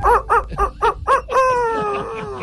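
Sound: rooster crowing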